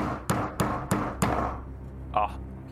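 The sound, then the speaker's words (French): Four heavy, evenly spaced pounding knocks on a door, loud with a booming ring after each, the door deforming under the blows, followed by a brief vocal sound. “Il y a la porte qui se déforme sous les coups.”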